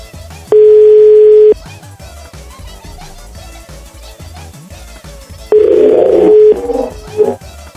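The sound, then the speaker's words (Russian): Two long, steady telephone ringback tones from a call to a landline phone sound about four seconds apart over a quiet background hiss, the second one slightly rougher with some crackling noise around it. “Да и когда вы попадаете на мобильный телефон, у них нет гудков. Вы позвонили на какой-то стационарный.”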